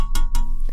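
A small plastic-and-metal USB to USB-C adapter is tapped against a microphone a few times, giving loud, dull knocks with brief gaps between them over a low steady hum.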